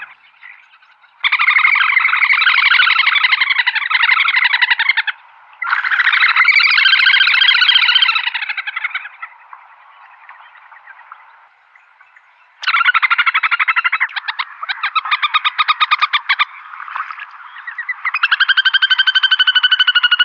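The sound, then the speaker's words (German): Loud little grebe trills in a duet of male and female: long, shrill whinnying bursts that rise and fall, one bird starting and the second joining in shortly after, pausing briefly, then trilling again for several seconds. “Oft werden die Triller von Männchen und Weibchen im Duett vorgetragen. Ein Vogel beginnt und der zweite stimmt kurz darauf ein.”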